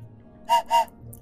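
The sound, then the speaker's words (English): Two short, sharp whistle blasts in quick succession, shrill, with a brief gap between them and a faint background hum otherwise. “I wasn't breathing in when I was trying to blow the whistle.”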